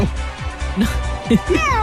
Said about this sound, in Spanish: A ver, démosle un gato, démosle un gato que se ahoga. Dame el gato.